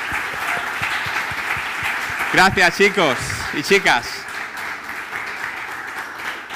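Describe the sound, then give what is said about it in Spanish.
Sustained, loud applause from a large crowd for the staff team at a morning gathering. A dense, steady roar of many hands clapping continues throughout while a man briefly speaks over it. “Así que, ¿por qué no damos un fuerte aplauso al equipo de staff?”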